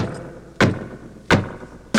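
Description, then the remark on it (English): Three loud, heavy foot stomps, with everybody told to stomp their feet real loud, land at a steady, unhurried pace, each a deep booming thud with a short rumble, separated by a quiet background with no talking. “Come on, everybody, and stomp your feet real loud.”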